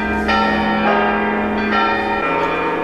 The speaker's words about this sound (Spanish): Con un sonido como este, campanas sonando todo todo el rato, hasta 200 veces al día, de 9 de la mañana a 9 de la noche. Llevan cuatro años viviendo los habitantes de Coverciano, un pequeño pueblo en la Toscana italiana cerca de Florencia.